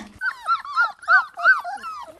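A dog, Filou, whimpers and whines in a rapid run of high, wavering cries that rise and fall several times over a couple of seconds, with no talking.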